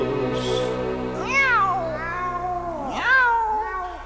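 A cat meows twice, two drawn-out, rising-then-falling cries spaced about a second and a half apart, loud over a low steady background hum.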